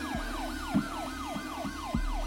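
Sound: emergency vehicle sirens wailing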